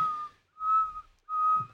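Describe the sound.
Someone whistles three sustained, steady notes at a similar pitch with short gaps between them, a clear, pure tone that sounds almost flute-like. It is moderately loud, with no talking.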